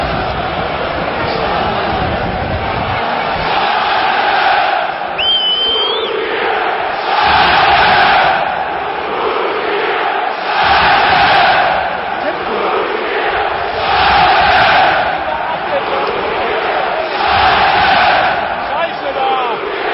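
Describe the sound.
A large stadium crowd of football supporters in the north curve chants together, a loud massed roar of voices rising in rhythmic swells every few seconds over a constant crowd din.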